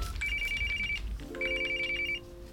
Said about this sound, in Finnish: Kun puhelin soi, on maanantai. Työpäivä ja palaveri ovat kesken. On kulunut kolme viikkoa lapsettomuusklinikan ensikäynnistä. Olen osannut odottaa soittoa, sillä jo edellisenä perjantaina klinikan numero on vilkkunut näytöllä.